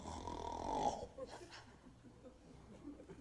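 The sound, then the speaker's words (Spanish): A person imitates one loud, rasping snore lasting about a second, prominent, followed by quieter room noise and faint shuffling. “But don't tell me you don't snore.”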